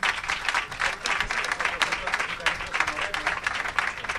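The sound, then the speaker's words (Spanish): Sustained audience applause fills the whole stretch, a dense, steady patter of many hands clapping, with no one speaking over it. “ha vingut aquí des de Santander, des d'aquí vull donar un aplauso.”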